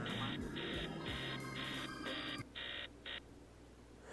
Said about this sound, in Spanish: Y se empieza a escuchar la alarma.